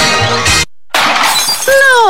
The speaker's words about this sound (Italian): No, il mio smartphone in frantumi.